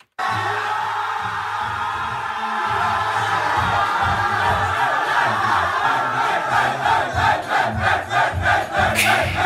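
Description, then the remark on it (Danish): A team of men in a locker room after a match, cheering and shouting together in a loud, echoing burst, with chanting that turns into a steady rhythmic pulse of claps and stomps toward the end. “Prøv lige at høre, hvordan det lød ind i omklædningsrummet efter kampen.”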